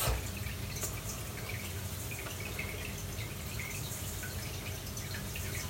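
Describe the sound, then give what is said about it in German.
Wheat semolina poured from a jar into a bowl already holding 200 grams of wheat flour, topping it up to 300 grams, makes a steady, soft granular hiss for several seconds, with faint scattered ticks of grains landing and no one speaking. “Und ich habe hier ein Glas mit Grieß. Da fülle ich jetzt einfach mal auf 300 auf.”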